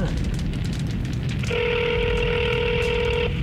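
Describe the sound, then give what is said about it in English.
A single sustained touch-tone phone beep sounds for nearly two seconds while dialing a 1-800 number, clear and steady over a constant low rumble of background noise, with no talking. “Now it shows a seven digit number, so I guess to get around it, let's just add a 1 800 to it anyway, just to see what's on the other end.”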